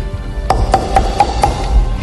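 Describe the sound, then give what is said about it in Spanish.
Five quick, evenly spaced, sharp knocks on a door in a steady rhythm over a low background hum with no talking; a new group of reggaeton musicians knocking at the door of the music production company Guadalupe y Gabriel Records. “mientras tanto, en la nueva productora de música Guadalupe y Gabriel Records, un nuevo grupo de reggaetoneros tocaba la puerta en busca de una oportunidad.”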